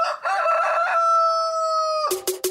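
A rooster crows once, loud, a long drawn-out cock-a-doodle-doo that holds a steady note before ending in a few sharp, rough bursts.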